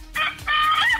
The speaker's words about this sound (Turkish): Bak horoza bak. Şu anda horoz ötüyor aslında. Bir gülmüyor yani.